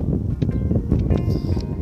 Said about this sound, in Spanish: Yo ahorita estoy aquí grabando el audio en un lugar muy hermoso donde está corriendo el viento, salir un poquito de la rutina, porque dentro de casa hace un calorón que uno se empieza a dormir.